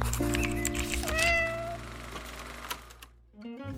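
A cat lets out a drawn-out, rising meow, followed by a shorter second call, over a steady low hum of background noise.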